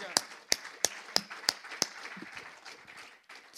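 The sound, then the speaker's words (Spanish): A crowd claps in praise of God in steady unison, about six sharp, loud claps in a quick even rhythm, then the clapping gives way to a murmur of voices and room noise. “Un fuerte aplauso a este Dios tan grande, aleluya.”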